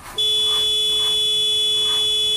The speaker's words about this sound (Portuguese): Depois de um ou dois minutos, o motorista logo atrás dela começou a buzinar impiedosamente.